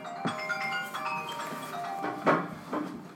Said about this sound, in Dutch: Ondertussen gaat de telefoon, we is het bij jou? Nee?